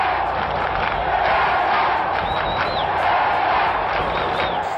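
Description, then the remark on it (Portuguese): A loud football stadium crowd roars and chants in support of Pelé just after a penalty is awarded, a dense continuous wall of voices with a few sharp whistles rising above it. “Bem, polêmicas à parte, o fato é que assim que o pênalti foi marcado, todo o estádio veio abaixo e a torcida entoava gritos de apoio ao rei. Ouçam só a torcida!”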